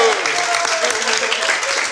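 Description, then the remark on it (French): Sustained applause from a crowd fills the whole stretch, a dense, steady patter of many hands clapping, with faint voices murmuring underneath. “Et on peut applaudir”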